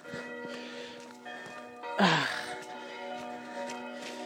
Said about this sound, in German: Ich höre die Glocken der Stadtkirche von Weitem. Ne, der Dorfkirche. Ja, wir sind hier im Dorf.